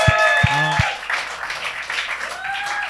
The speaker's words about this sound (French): Applaudissez pas tout de suite!